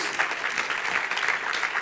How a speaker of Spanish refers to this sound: ¿No le das un aplauso al Señor por ello?